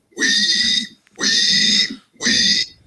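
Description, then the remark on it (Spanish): A person imitates a pig with three loud squealing oinks, each lasting about half a second, separated by brief pauses. “Bueno, que bien te sale el, el, sí, natural. del chancho, ¿ah?”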